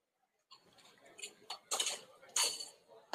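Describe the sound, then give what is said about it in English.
Someone sips a drink from a glass, with a few soft clinks and brushing handling noises over about two and a half seconds, no one speaking. “Another little sip.”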